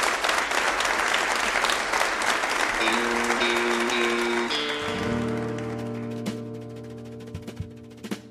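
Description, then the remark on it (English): Dense, enthusiastic audience applause for a band at a Red Barn Radio show in Lexington fills the first few seconds, then gradually fades as sustained instrumental notes start up and carry on beneath the dwindling clapping. “Once again, let's hear it for ….”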